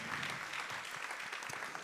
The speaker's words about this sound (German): Die Leute haben geklatscht, die haben das von mir gefordert.